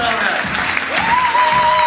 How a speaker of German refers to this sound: Einen großen Applaus bitte für Lara Stoll!